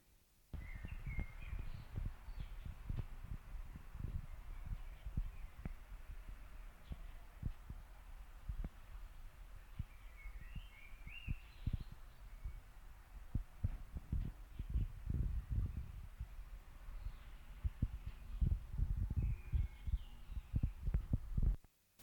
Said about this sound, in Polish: W związku z czym nagranie jest tylko na lewym kanale. Przez chwilę nic nie będę mówił, żeby można było zidentyfikować szum. A i to nagranie jest bez systemu Dolby.